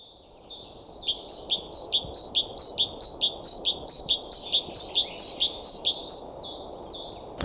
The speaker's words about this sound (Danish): Man kan også sige lydord. Ja, som er et lydord. det er nemlig musvitten, som siger sit eget navn.